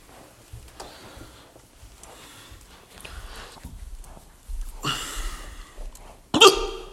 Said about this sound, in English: Oh, fuck, I got the hiccups. Huh? Oh, oh shit, I got the fucking hiccups. Ah, damn it.